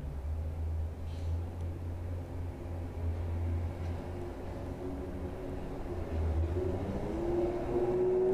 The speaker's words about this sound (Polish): Autobus.